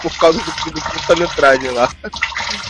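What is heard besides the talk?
water running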